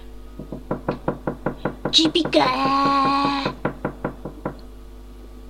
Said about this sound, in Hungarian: Harkály mestert pillantotta meg egy bükfa törzsén.